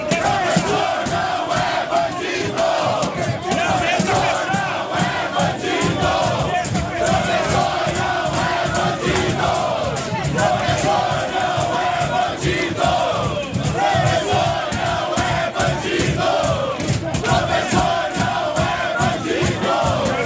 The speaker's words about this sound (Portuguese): Mas a votação não foi pacífica, não. Dá uma olhadinha lá do clima animado lá na Assembleia.